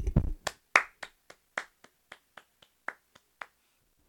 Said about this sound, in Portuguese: Palmas para mim.